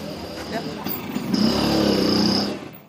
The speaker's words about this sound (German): auch die Chinesen beherrschen die Kunst des Motorradfahrens. Hinter dem Torbogen, in dem der Raser verschwindet, lugt ein rotes Tempeltürmchen hervor.